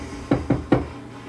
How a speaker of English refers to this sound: If I got pulled over, which I don't a lot, knock on wood, I'm gonna knock on my dresser right now.